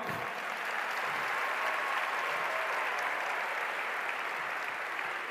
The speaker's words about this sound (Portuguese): Pode bater palmas.